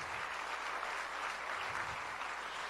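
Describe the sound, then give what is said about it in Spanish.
An audience applauds for the Lord, a dense wash of many hands clapping at once that holds at an even, fairly loud level throughout, with no individual voices standing out. “Denle un aplauso al Señor.”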